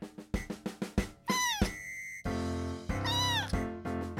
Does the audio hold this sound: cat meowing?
yes